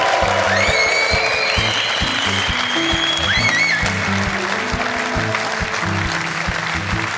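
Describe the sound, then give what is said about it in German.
Sustained applause from the studio audience of the Sport 1 show Doppelpass as Mario Basler is introduced, a dense, steady wash of clapping at even loudness for several seconds, with faint whistles rising above it and music playing underneath. “Und jetzt bin ich gespannt auf die Reaktion unseres Publikums, denn endlich ist er mal wieder hier bei uns im Doppelpass.”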